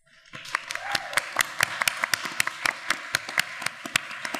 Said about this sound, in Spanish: y celebrando que los aplausos de ustedes, nuestros oyentes, nuestros oyentes, resuenen por todo el mundo. Así que primero que todo, un aplauso para ustedes.